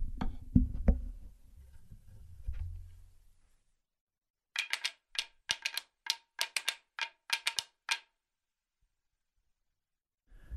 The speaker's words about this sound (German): und die sind auch mit einer Handschleife versehen, haben also eine Größe wie also ein, ein ähm, A2-Becken auch, werden mit Handschlaufen gegeneinander geschlagen und dann entsteht das Klappern, das man rhythmisch eingesetzt ähm, so hören kann.